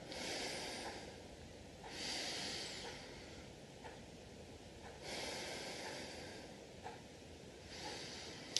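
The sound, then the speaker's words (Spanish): Slow, calm breathing through the nose rather than the mouth, done as an exercise to calm an anxiety attack, with soft airy inhales and exhales repeating about four times at an unhurried, even pace. It is quiet, with no talking. “Primero respira por la nariz, no por la boca. Respira más suavemente, con calma sin forzar.”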